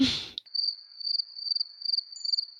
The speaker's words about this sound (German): füge jetzt hier Grillenzirpen ein. Danke.